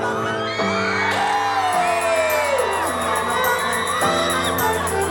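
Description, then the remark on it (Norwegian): A live audience at an entertainer's stage show cheers loudly and steadily after the performer asks for more noise, with shrill whoops and shouts rising and falling above the dense roar of many voices, sustained throughout. “Kan jeg høre litt mer lyd fra dere?”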